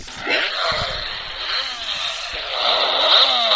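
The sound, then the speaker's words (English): A novelty dog toy plays its Dale Junior call, a harsh, buzzing engine-like electronic roar that holds steady for several seconds and swells louder near the end, with no one talking over it. “this dog toy right here. Where's the Dale Junior Dale call?”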